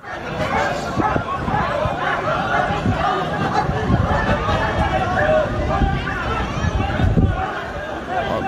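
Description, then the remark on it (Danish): A dense, chaotic crowd din of many overlapping voices shouting and chattering at once, steady and loud throughout with scattered sharper outbursts and hurried movement, as police intervene against a demonstration in front of party venues in Folehaven, Copenhagen. “Det endte i det rene kaos, da politiet greb ind over for en demonstration, som var foran festlokalerne.”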